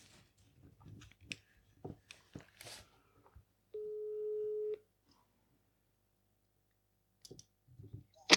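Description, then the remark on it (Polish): A few sharp taps and clicks as a phone is dialed to call a man, then one steady ringback tone lasting about a second, followed by quiet and a few more soft clicks. “Dzisiaj wykonamy telefon do pana, który nieopatrznie podał swój numer telefonu w kawałku.”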